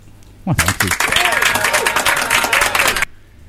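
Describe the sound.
A loud burst of audience applause, dense and steady for about two and a half seconds with voices cheering over it, then cutting off abruptly.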